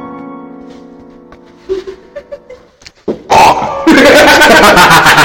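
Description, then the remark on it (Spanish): A voice imitates a car alarm being set as the car is locked: a steady droning tone, a few short chirping blips, then a loud, harsh blaring burst that fills the end, with no other sounds. “Puse seguro y puse alarma, güey. Así ah, porque sí, se tenía alarma.”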